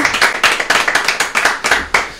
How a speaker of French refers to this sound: Bah, je pense qu'on peut applaudir ça, ah quand même.